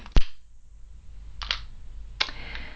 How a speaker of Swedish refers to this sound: Och jag tänkte först börja med att tända ett ljus och då blir det en elektrisk grej här som jag använder tändare.